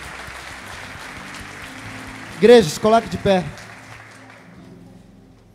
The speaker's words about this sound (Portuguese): pode aplaudir a Deus?